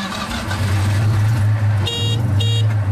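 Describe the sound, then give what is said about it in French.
A Citroën 2CV's small engine chugs steadily with a low, throaty idle, then two short, nasal honks of its horn sound near the end. “La star du jour, c'est bien sûr la deux chevaux, voiture préférée des auditeurs de RTL.”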